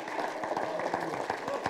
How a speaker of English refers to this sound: Praise God. I think we ought to clap. Come on. Praise God. Hallelujah.